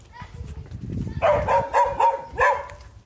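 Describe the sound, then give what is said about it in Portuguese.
A dog barks in a quick run of four or five sharp barks, starting about a second in over a low murmur of background noise. “Ah, é, tem cachorro também, viu?”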